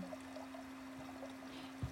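Fresh, crystal-clear water from a mountain stream trickles and pours steadily into a man-made chute in a soft, continuous stream, fairly quiet, with a faint low hum underneath and a small splash near the end.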